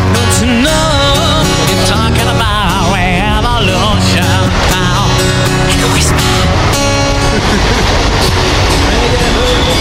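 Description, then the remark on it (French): A metro train rumbles and clatters loudly as it pulls away, the steady roar filling the whole clip while a busker's wavering melodic voice or instrument rises over the noise. “Attention, le métro va partir.”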